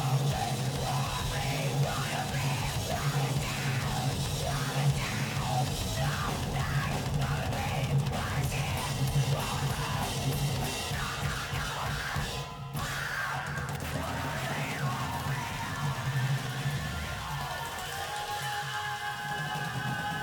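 A loud, chaotic metalcore song from 2001, played in its full length of 42 seconds, with dense distorted guitars, pounding drums and harsh screamed vocals, playing nonstop with a brief break partway through before the wall of noise resumes.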